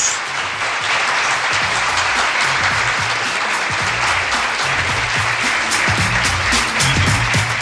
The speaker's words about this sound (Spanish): Pues yo, con tu permiso, le voy a dar un aplauso a la gente de Avanza, tío. Muchas gracias. Un aplauso para ellos.